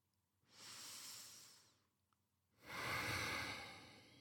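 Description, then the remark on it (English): Two slow breaths of paced breathing, in for a count of four and out for six: a soft airy inhale lasting about a second, a short pause, then a longer, louder exhale. No voices. “So let's finish off just with a bit more of that breathing. Breathing in for four, Breathing out for six.”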